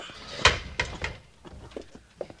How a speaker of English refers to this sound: Shut the door!